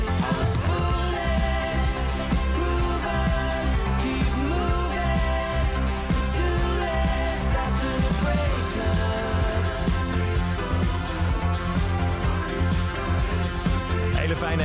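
A new single: a full, steady band track plays throughout at an even loudness, with bright layered synth textures over driving bass and drums and what sounds like a sung vocal, in an upbeat indie pop style with electronic influences, said to resemble Manchester bands.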